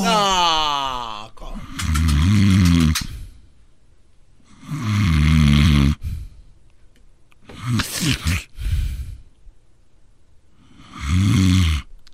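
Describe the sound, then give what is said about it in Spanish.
Heavy, rattling snores repeat in slow, regular bursts with quiet breathing gaps between them, loud, with a sharper snorting catch near the end. “En la número 7 le disparó a su pareja con una escopeta por roncar mucho.”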